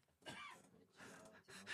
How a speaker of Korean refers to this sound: 기침하시면 어떡합니까 지금?